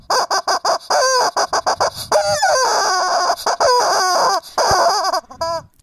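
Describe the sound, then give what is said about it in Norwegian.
A squeaky rubber goose toy is squeezed over and over, letting out loud honking squeals in quick irregular bursts, with no one talking. “Så jeg har rett og slett tatt på meg en morsom, pipete gås.”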